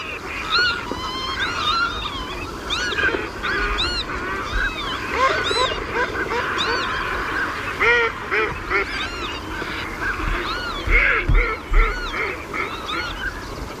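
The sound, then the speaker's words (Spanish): A large flock of wintering geese honks continuously across the Doñana marshes, when the marsh was a muddy wetland, many overlapping calls forming a dense, restless chorus with no voices. “las aves frías traen puesto en el nombre eh, la mala estación, el frío por venir”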